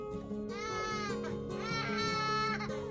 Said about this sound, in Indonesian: Apa itu? Suara tangis bayi.